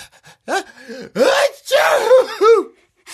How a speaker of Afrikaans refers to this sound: Jy het in jou hande genies. Jy sal weer moet gaan was.